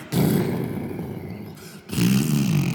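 thunder rumbling

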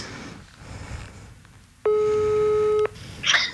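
telephone ringing tone

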